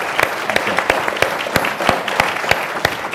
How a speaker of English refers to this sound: But uh, uh, again, I uh, I think this group has been awesome. How about an applause for for, for the panel?